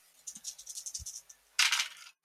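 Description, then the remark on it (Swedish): Three dice are rolled in a tabletop role-playing game, rattling and clattering in a quick series of small taps across a hard surface, then tumbling together in a louder, denser burst before stopping; no voices. “Då får du ett högmod och så får du tre tärningar. Högmodet börjar räknas efter slaget.”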